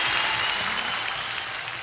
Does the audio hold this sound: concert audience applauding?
yes